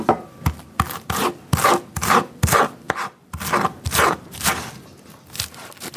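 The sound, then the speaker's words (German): A knife chops vegetables steadily on a wooden board, a run of crisp thuds about twice a second, with scraping and rubbing between strokes and no voices. “Inzwischen hilft ihr eine ganze Schar aus Lotsen und Gelotsten beim Gemüseschneiden.”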